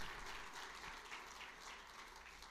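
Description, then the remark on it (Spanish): An audience applauds the Lord together, a steady wash of many hands clapping at a fairly even loudness with no voices standing out. “Yo le estaría dando un aplauso al Señor.”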